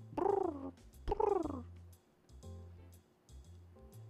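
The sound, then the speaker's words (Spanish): Low, throaty cooing from pigeons: two louder rolling coos up front, then a run of softer, pulsing coos repeating steadily, with no talking. “Ahora eran un gran tumulto, y todas al arullo de ese sonido de paloma, ya saben.”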